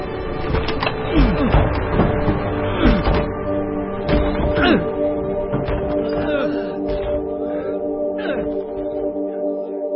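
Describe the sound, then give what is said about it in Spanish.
Loud blows pound against a door again and again in an irregular rhythm, with cracking thuds over a steady low hum, as people break the door down to get inside. “Vamos a tirar la puerta.”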